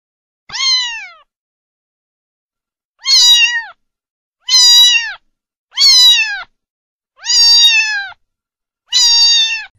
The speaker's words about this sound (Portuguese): Vamos conhecer agora o gato. O gato é um felino doméstico, pois ele vive junto com várias famílias se alimenta de carne e também de ração, alguns até de leite. Possuem pelo curto ou pelo longo. Você conhece o som do gato?